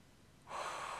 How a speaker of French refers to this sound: Ce sont des exercices de respiration qui viennent vraiment activer notre feu.